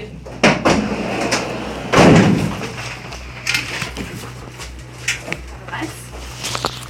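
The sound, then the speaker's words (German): A van's rear doors clunk open after it stops abruptly in the dark, followed by a loud, scraping rush of movement and scattered metallic clicks and rattles as activists pile out the back and lift bicycles out, over a steady low engine hum, at the fence of Berlin's BER airport. “Sie stürmen hinten aus dem Transporter und heben die Fahrräder raus.”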